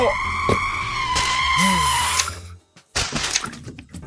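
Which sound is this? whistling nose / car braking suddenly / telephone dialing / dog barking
car braking suddenly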